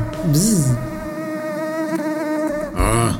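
A loud mosquito whine drones right up close by the ear, steady and high-pitched for about three seconds, wavering in pitch at first, with short hissy bursts at the start and end.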